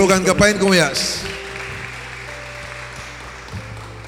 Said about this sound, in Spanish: Denle un aplauso fuerte.